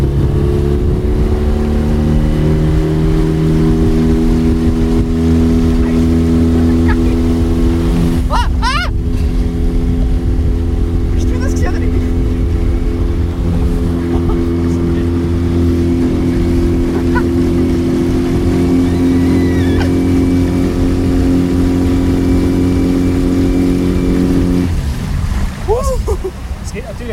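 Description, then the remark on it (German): A motorboat engine drones loudly for the whole stretch on a sunny day, its steady throbbing hum shifting in pitch partway through as the throttle is opened a little, with water splashing faintly underneath. “Ich denke, um ein das Gefühl zu bekommen, gebe ich mal ein bisschen Gas und dann einfach mal das Wasser ein bisschen schwätzen.”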